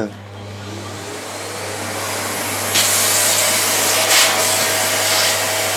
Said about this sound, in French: En faisant le ménage, j'ai découvert un bruit quand on passe son aspirateur dans euh, la cheminée. Écoutez.